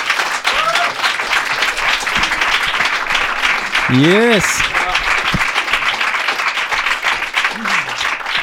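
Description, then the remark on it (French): A crowd claps steadily and loudly throughout as a guest is introduced, with shouts and cheers rising over the applause and one voice whooping excitedly partway through. “S'il vous plaît, faites un maximum de bruit”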